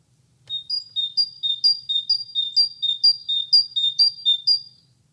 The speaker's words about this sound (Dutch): Ik moet eerlijk zeggen dat ik af en toe ook wel eens een beetje gek van word als ik dit hoor. Maar dit is de koolmees. Dit is de roep van de koolmees. Hè? Niet, niet, niet de zang.